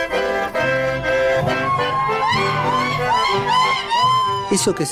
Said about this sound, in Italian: Quello che si ascolta è un sapucai. Il sapucai è una manifestazione del chamamesero. Si può gridare il sapucai come un festeggiamento, come una sfida, una rabbia o per sciogliere una grande emozione.